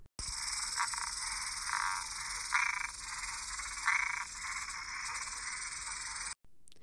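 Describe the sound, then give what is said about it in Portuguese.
A dense, continuous chorus of tree frogs croaking and trilling, fairly loud, swelling briefly a few times before cutting off abruptly near the end. No voices. “De novo, nada aconteceu. As pererecas na árvore bocejaram.”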